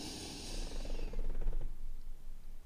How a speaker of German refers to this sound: Wir fangen an und atmen ganz tief ein, dass sich die Bauchdecke hebt, das Brustbein hebt.